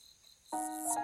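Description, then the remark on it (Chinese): Firefly chirping: a faint, thin high whine gives way midway to a louder, bright, sustained chirring tone with a ringing, almost musical quality. No one speaks. “这就是萤火虫的声音呀！”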